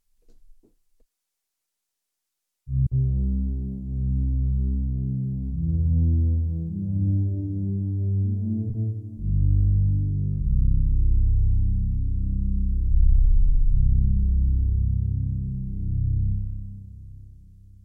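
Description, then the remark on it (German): The u-he Zebra 2 software synthesizer, running in Cubase, plays low, droning sustained chords with a warm, throbbing tone, changing to a new chord about halfway through; no one speaks over it. “Also ich mache gerade mal Zebra mal 2 auf.”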